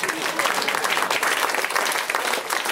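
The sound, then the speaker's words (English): An audience at a show applauds an audience member's sparkle top, a dense, steady wash of many hands clapping at once, holding an even loudness for about three seconds with no voices over it. “you too could get a round of applause for yourselves”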